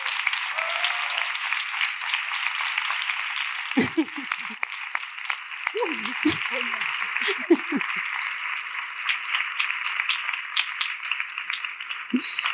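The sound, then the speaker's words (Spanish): Sustained audience applause for a guest being introduced fills the whole stretch, a dense wash of many hands clapping, with brief voices and laughter surfacing underneath now and then. “Así que un fuertísimo aplauso para Yolanda Ramos.”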